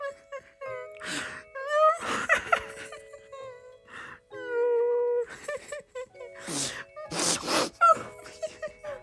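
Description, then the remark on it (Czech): Wailing, tearful crying of a little elf inside a house, with rising and falling moans broken by sharp sobbing bursts, loud and growing louder, continuing for several seconds with brief pauses between cries. “Jak procházeli vnitřkem domu, pláč byl slyšet hlasitěji a hlasitěji.”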